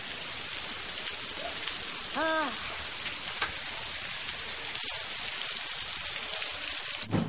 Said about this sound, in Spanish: Pero señor, está lloviendo.